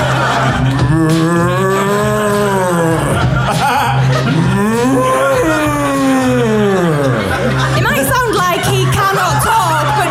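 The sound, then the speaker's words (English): A voice imitates a cow with drawn-out, wavering moos that rise and fall in pitch, sustained loudly for several seconds with a constant low hum underneath. “We've got loads of cows and bulls.”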